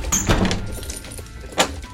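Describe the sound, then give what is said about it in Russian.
A study door swings shut with a dull thud, followed a moment later by a single sharp click of a lock being turned. Both sounds are fairly quiet, with no talking. “взял его за руку, повел в кабинет и запер за собой дверь.”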